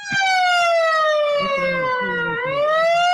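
A stadium horn alarm, sounded when Cobreloa attacks past midfield, blares loud and continuous throughout, a bright buzzy tone whose pitch sags slowly and then lifts again near the end, with a faint low rumble of background noise beneath it.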